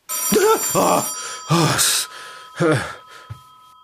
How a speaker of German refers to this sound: Willst du nicht rangehen? Nein, warum? Vielleicht ist es Conny. Ja, das kann sein. Dann gehe ans Telefon